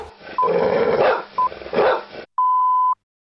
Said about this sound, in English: and there's the dog. The West Auckland Brown Pit Bull.